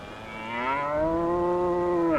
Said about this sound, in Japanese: 牛そんなに驚くことですかえだって仁徳天皇陵の土手に牛って田畑を耕すための牛を放っていますあの辺りはいい草が生えるんですよ